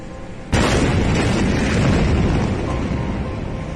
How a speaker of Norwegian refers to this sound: Da gikk jo denne enorme eksplosjonen av i Beirut havn.